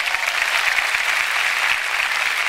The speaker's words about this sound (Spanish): Y si dale ese fuerte aplauso al Señor.